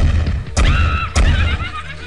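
Two heavy, booming thumps on the back door of a Tennessee farm, late at night in December 1817, roughly half a second apart, each followed by a thin ringing whine, over a steady low rumble.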